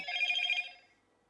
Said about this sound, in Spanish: Perdón, no le saqué el silencio al celular. Ahí se va a escuchar eso. Entonces, perdón, no le había sacado el, el sonido al celular les pido un disculpa.